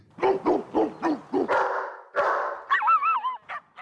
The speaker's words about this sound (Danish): Hunde, vovser, det mest populære kæledyr i Danmark.